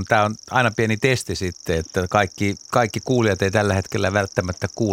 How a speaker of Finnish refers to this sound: niin sieltä kuului pensassirkkalintu ja juttua näytti riittävän kyllä. Joo. Mielenkiintoinen lauluääni. Me laitetaan vähän tästä taustalta soimaan sitä kuulet hyvin kumminkin pensassirkkalinnun.